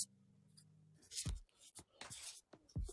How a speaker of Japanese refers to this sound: ほら、こういう紙の音がささりげなく聞こえるからいいんだよね。